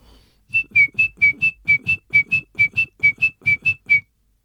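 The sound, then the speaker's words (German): A person whistles an imitation of a great tit's song: about sixteen quick, evenly spaced metallic notes alternating slightly in pitch, fairly loud, with breathy puffs under each note. “Und bei der Kohlmeise speziell ist das eine sehr metallische Klangfärbung.”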